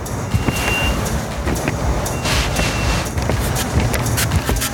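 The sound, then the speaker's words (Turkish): Dense road traffic in a jam rumbles steadily, vehicles stuck in the same place for 15 minutes, with engines idling, occasional horn-like tones and a faint reversing beep amid a continuous low drone of stalled vehicles. “Allah'ım böyle trafiğim yetti Allah aşkına hep Dur ya.”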